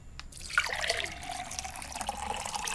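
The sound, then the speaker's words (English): Liquid pours steadily into a small shot glass, a continuous trickling splash that lasts a few seconds with a faint ringing tone, and no one speaks. “I'm ready to pour.”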